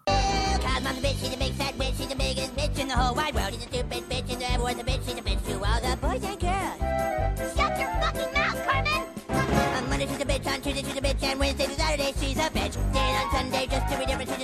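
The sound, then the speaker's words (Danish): A lively, upbeat show tune from an animated musical plays loud and continuous, with melodic singing over full orchestral backing and a steady bouncing rhythm. “som øh, lytterne nok kan høre, så var det en af de her famøse øh, musicals, og faktisk endda sådan en tegnet musical, eller i hvert fald klippet, nej, øh, det var en tegnet musical,”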